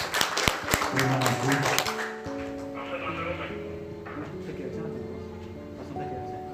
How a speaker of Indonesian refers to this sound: kira-kira setuju ya boleh tepuk tangan untuk santri entrepreneur